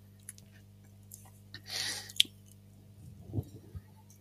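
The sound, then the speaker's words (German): Someone drinking from a water bottle: a soft plastic crinkle and hiss, a sharp click, then a few wet swallowing and mouth noises over a low steady hum. “Ich hatte das Gefühl, da kommt noch was, aber stattdessen höre ich nur eine Wasserflasche.”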